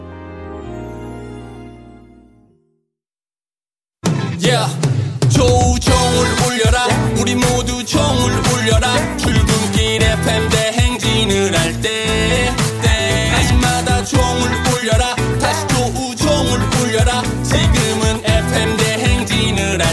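A short musical tail fades into a moment of silence, then a loud pop song played on a Korean radio program kicks in with a steady beat and full instrumentation, playing on without any talking.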